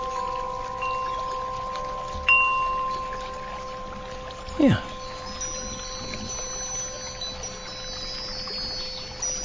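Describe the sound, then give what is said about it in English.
A steady babbling brook trickles throughout while wind chimes ring with long, sustained tones, with fresh strikes joining now and then. A voice briefly speaks once in the middle. “Wind chimes babbling brook.”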